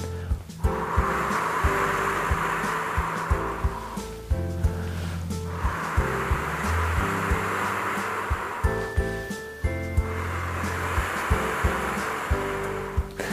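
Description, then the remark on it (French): Someone blows through rounded lips in three long, breathy whooshes, each rising and fading, imitating wind rustling through tree leaves, with a soft steady tone humming underneath. “Et vous soufflez en imitant le, bruit du vent dans les feuilles des arbres.”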